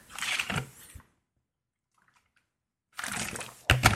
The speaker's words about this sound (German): So, zweite Trinkpause.